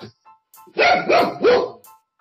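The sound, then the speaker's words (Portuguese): The speaker's pet dog barks three times in quick succession, loud, each bark sharp and full, with brief quiet gaps and no talking. “Ah, meus cachorros, eles não gostam muito não, tá vendo?”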